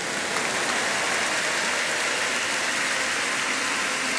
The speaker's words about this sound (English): For these triumphant instant testimonies, one more time, give the Lord a big clap of.